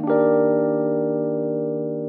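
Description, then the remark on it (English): A single piano chord, E flat major 7, is struck once and left to ring, its rich, jazzy voicing sustaining evenly for about two seconds with only a slow fade and no voices. “So the chorus is E flat major 7”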